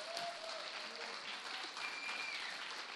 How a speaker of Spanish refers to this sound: Estaremos aquí con ustedes para disfrutar de más eh, en el programa musical, no sin antes pedirles al público presente un fuerte aplauso para ellas y para nuestro equipo técnico y creativo.